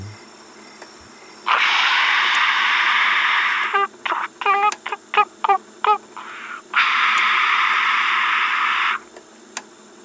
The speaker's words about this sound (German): Und dann schlagartig statisches Rauschen, gewürzt mit leichten, gurgeligen, piepsigen Klängen.